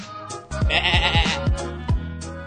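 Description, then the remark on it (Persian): A sheep bleats loudly, a wavering, quavering call lasting over a second, with no voices around it; a sheep herded in Masjed Soleyman. “محسن رضایی با لباس محلی تو مسجد سلیمان گوسفند میچرون”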